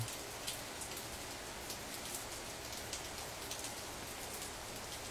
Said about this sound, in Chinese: 这么雨声那么大，应该很难吧？